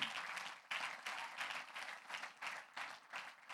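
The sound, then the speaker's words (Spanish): An audience breaks into sustained applause of thanks to the Lord, a dense, steady wash of many hands clapping with a slightly pulsing rhythm and no voices standing out. “Vamos a dar un aplauso de agradecimiento al Señor.”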